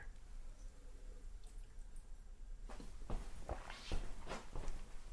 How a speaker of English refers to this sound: I need some water though to start with. I'm so thirsty. Excuse me while I drink some water.